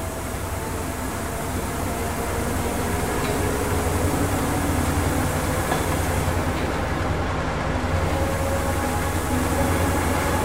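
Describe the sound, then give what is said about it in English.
A train rumbles steadily along the rails past a red light, a dense mechanical roar with faint humming tones that gradually builds slightly in intensity as it picks up speed. No voices are heard. “Passing that interminable red light. Okay, we're picking up.”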